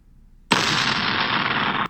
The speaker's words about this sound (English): Someone has boarded one of the ships and is shooting the cannons. I hear crackling and a crash, the cannonball hitting a tree.